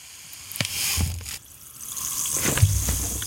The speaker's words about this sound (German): Ich würde erst das Wasser und dann hören, ob das Pulver da drin zischt. Aber das zischt doch. Naja, gut. Oder? ja. So, nicht zu viel Wasser. Jetzt kommt das Brausepulver dazu.